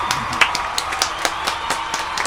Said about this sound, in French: on fait un applaudissement